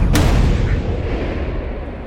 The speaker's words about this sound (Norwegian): men vi gir det én sjokkgranat eh, til.